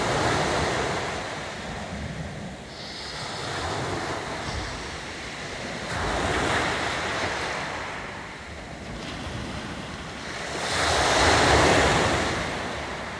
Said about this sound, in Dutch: Adem diep in en uit. Volg het ritme van de golven.